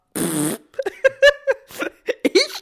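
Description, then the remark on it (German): A voice mimics a fart with a short, buzzy, blustery raspberry, followed by a run of choppy, breathy vocal bursts like stifled giggling, fairly loud. “scheiße, das war der erste Pups vor ihm und der war unangekündigt, sowohl bei mir als auch bei ihm.”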